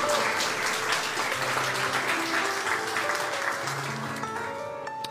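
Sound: audience applauding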